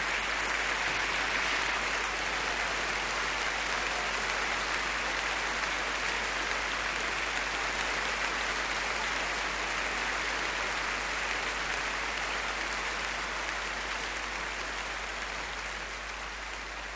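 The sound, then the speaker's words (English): Sustained applause from a concert audience for conductor Sixten Ehrling and soloist Shura Cherkassky before Tchaikovsky's Piano Concerto No. 1 in B-flat minor, a dense, steady wash of clapping that holds at an even loudness for about seventeen seconds before tapering slightly at the end, with no voices. “this applause is for the conductor, Sixten Ehrling, and the soloist, Shura Cherkassky.”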